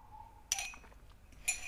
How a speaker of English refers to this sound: let me have a sip before we get into this topic